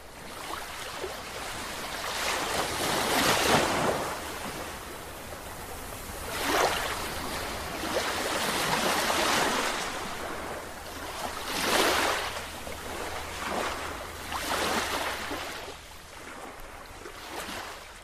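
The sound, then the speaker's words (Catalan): Sea waves wash onto the shore in steady, broad rushes, about five swells rising and receding every few seconds, with a constant low rumble of surf beneath and no voices. “Aigua i sal, una gavina...”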